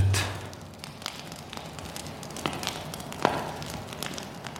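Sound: crackling campfire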